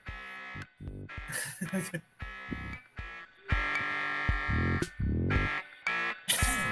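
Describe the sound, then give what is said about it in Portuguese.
An instrumental song plays on a cheap, buzzy, broken Casio electronic keyboard: harsh, tinny melody notes over choppy, distorted bass tones, loud, with no one talking. “o Tecladinho Cássio quebrado.”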